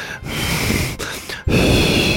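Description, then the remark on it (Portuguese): A voice imitates loud, exaggerated breathing: heavy noisy breaths and gasping inhales in a steady run, with a brief pause before a final harsh, drawn-out exhale. “as pessoas se incomodam muito também com respirar, né? Que aí respirar pelo nariz ou pela boca, padrões de respiração”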